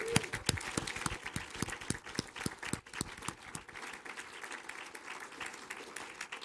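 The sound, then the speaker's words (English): A church audience at a Fourth of July program breaks into steady applause for performing children, many hands clapping in a dense, continuous patter that holds for several seconds before thinning slightly toward the end. “Let's give them a hand.”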